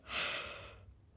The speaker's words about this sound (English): Um, gosh, that was a loud yawn.